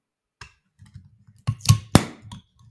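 A swing-top bottle of Altenburger Winterbier Limited Edition being opened: several soft clicks and taps of the clasp, then two sharp clacks close together as the stopper lifts, with only a muted release rather than a loud pop.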